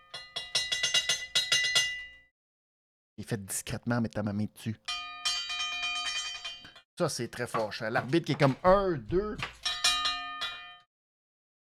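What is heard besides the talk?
ringing bell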